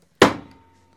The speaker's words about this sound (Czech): já bouchnu dveřma, ne?